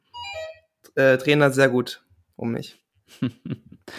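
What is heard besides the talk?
bell ringing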